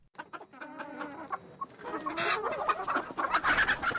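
A family's laying hens cluck in quick, irregular bursts, growing busier and louder toward the end as several hens squawk and chatter together. No one speaks.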